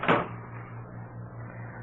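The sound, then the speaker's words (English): A single solid thud of a door being shut, followed by a low, steady hum lingering in the background. “Shut the door, Chester.”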